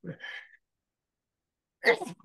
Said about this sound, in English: I'm going to sneeze.